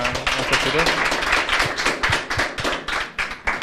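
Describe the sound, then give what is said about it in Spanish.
An audience breaks into steady applause for the young guests at the close of a programme, many hands clapping in a dense, continuous patter that stays fairly loud throughout, with some louder individual claps and faint voices mixed in. “Vamos a hacer un aplauso, ¿verdad?”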